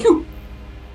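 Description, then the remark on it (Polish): A single short sneeze bursts out right at the start, fairly loud, then fades into quiet background noise. “Na zdrowie.”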